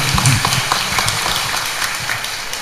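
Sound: audience applause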